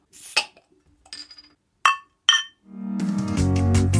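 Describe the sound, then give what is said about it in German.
Beer glasses clink together in a toast, four bright, sharp knocks spaced unevenly over a couple of seconds, followed by music starting up loudly. “Prost, Alter.”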